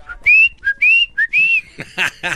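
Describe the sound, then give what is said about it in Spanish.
A person whistles like a little bird: three short, rising chirpy phrases, clear, followed by a brief burst of voiced sound at the end. “Somos de los que vimos pajarito. No conmigo, pajarito. Esta mañana estaba caminando en el parque cuando escuché”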